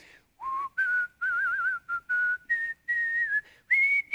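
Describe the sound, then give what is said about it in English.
A person whistles Christmas songs while going through a Kroger store, a cheerful tune of clear, wavering notes with short breaks between phrases. No one talks. “I mean, I was, I was just whistling every Christmas song I could think of.”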